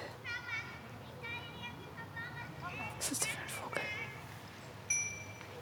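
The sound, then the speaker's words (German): Children at play outdoors, with several high, excited squeals and chirpy vocalizations, a few brief bursts of footsteps in rustling leaves midway, and a short sharp squeak near the end. “Schritte, also raschelndes Laub, quietschendes Kind.”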